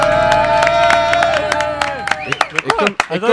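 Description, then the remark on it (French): A live public audience at the Ciné Brunch radio show on 47 FM, in the courtyard of Les Montreurs d'Images in Agen, applauds with a steady patter of claps and some cheering voices, then the clapping thins out as a voice starts talking over the last scattered claps. “on applaudit la disparition.”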